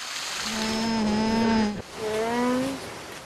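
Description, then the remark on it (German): An alpaca hums twice, two steady, nasal, low-pitched tones of over a second each with a short break between; the second one rises slightly in pitch toward its end. No talking. “Manche nennen diese seltsamen Tiergeräusche Summen.”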